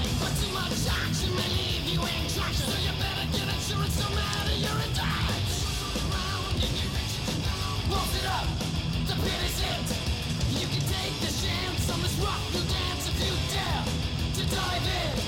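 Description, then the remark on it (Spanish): Fast, loud thrash metal by a San Francisco Bay Area band, from its third album of 1989, with distorted guitars and pounding drums under harsh, shouted vocals, dense and driving for the whole stretch. “…. …. …”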